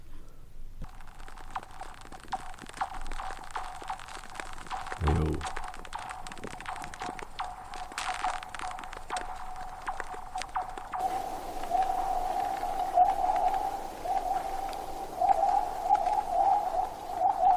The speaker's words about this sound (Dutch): Ja, dit is eh, Zingend IJs, uh, Zingend IJs.